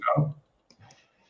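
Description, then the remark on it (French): A small dog gives one short, sharp yap, followed by a softer, muffled sound, with no talking. “un petit salut au petit chien.”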